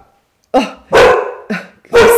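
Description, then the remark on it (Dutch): A dog barks four times in a quick, uneven sequence, loud and fairly deep, with the second and last barks longer and more drawn out, startled after a door slammed shut in the wind; no voices are heard. “De deur sloeg even dicht van de wind, dus de hond verschoot.”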